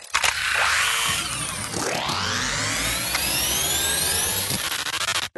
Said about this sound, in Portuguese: Que foi isso? Foi uma moto aqui na rua.